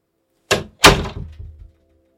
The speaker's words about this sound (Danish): Ja, sagde jeg og lukkede døren.